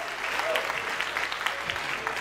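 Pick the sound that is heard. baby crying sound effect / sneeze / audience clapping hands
audience clapping hands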